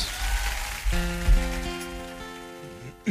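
Steady applause like a dense patter of clapping, then sustained instrumental tones begin under it about a second in as the band starts playing.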